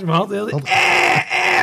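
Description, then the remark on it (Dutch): A person mimics some men by imitating a goat's bleat with a short, wavering nasal 'eh-eh', followed by breathy, hissing vocal noise and a few spoken words. “Jij doet ze dan na als een soort geit.”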